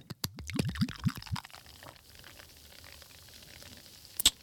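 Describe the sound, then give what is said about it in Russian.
Sips tonic is poured into a glass shaped like Marie Antoinette's breast, starting with quick rising glugs, then settling into a soft, steady carbonated hiss, capped by one bright glassy clink near the end. “А сейчас вы услышите, как наливаются тоники сипс.”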